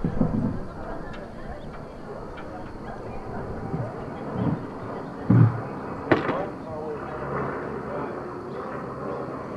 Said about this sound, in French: Euh, Bon, il y a un avion qui arrive, là.